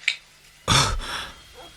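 A telephone receiver is hung up: a faint click, then a loud, sharp plastic clunk with a brief rattling tail that fades into quiet. No one speaks.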